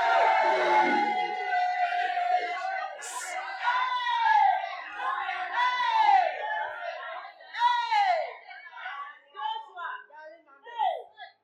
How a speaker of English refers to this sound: A lot of you are shouting, yeah, yeah, yeah, but you are doing certain things.